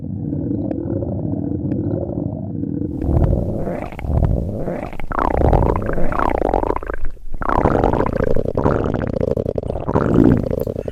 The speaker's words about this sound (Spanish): Salieron todos fuera a tiempo de escuchar cómo las tripas del lobo parecían dar un concierto.